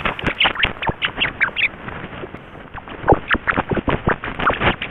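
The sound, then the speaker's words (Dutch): A rat giggling, recorded by scientists in Germany, in quick, irregular bursts of squeaky chirps, fairly loud, continuing without pause for several seconds with no voices. “Want wat u nu hoort, dat is een lachende rat.”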